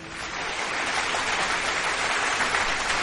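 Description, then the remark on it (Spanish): A steady crowd applause sound effect, a dense wash of clapping that holds at an even, fairly loud level for a few seconds with no voices over it. “Pues, pues sí, se, merece, se merece un aplauso y aquí le ponemos el aplauso, por supuesto.”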